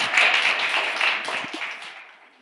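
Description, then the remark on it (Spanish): An audience applauds with a dense, steady wash of many hands clapping together, holding fairly loud before gradually tapering off toward the end. No one speaks over it. “Denle un aplauso, denle un aplauso, porque estar aquí adelante luego no es fácil.”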